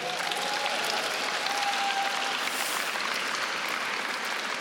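An audience claps steadily to welcome speakers coming up, a dense, even wash of many hands that holds at a constant loudness for the whole few seconds, with no voices rising above it.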